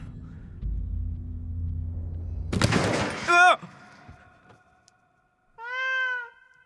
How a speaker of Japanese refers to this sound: なんだよね猫か。脅かすんじゃねえよほんと